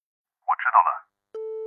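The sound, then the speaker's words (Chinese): A brief muffled voice is followed by a telephone busy tone: one steady, mid-pitched beep starts after a short silence and continues to the end. “许久后，传来了一句，紧接着便传来了一阵嘟嘟声。”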